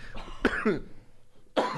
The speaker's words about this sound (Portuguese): Começando pela tosse, tá?